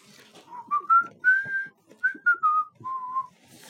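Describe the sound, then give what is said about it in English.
A cheerful whistled tune of several short notes, rising and falling in a clear, bright pitch, with a few longer held tones, whistled by a farmer setting off early one morning to his turnip field in the story The Enormous Turnip. Faint background noises sit underneath the melody. “Early one morning, a farmer set off, whistling to his turnip field.”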